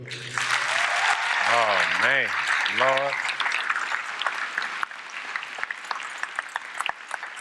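An audience at BlackRock applauds steadily to welcome speaker Anthony O'Neill, with dense, crackling clapping, joined early on by a few rising and falling whoops and cheers; the clapping thins toward the end into scattered individual claps.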